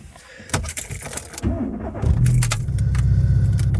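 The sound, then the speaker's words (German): Keys rattle and click in a car's ignition, then a starter cranks briefly and the car engine catches, settling into a steady low idle rumble. “Und den Wagen anschmeißen.”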